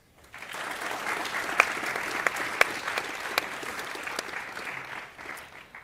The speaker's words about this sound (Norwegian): Så gi dem en applaus.